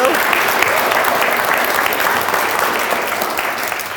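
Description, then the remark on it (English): A crowd, asked to make some noise, breaks into sustained applause, a dense wash of clapping that stays loud and steady throughout, with scattered cheers mixed in. “You can make some noise for that.”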